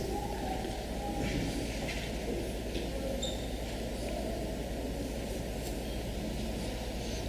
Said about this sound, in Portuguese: estava com saudade de ouvir a igreja folheando a Bíblia, está aí agora a oportunidade que você tem.